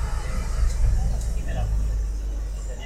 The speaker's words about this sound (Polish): ciężarówka jedzie.